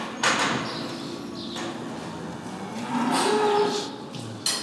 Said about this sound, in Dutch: En dan komen we bij, eh, bij het vee. De koeien kijken ons aan.